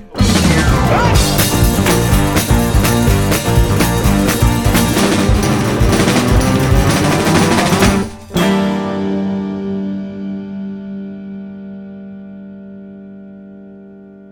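Loud, distorted rock music with dense drums and guitars plays for about eight seconds, then the band stops and a final chord rings out, slowly fading with reverb.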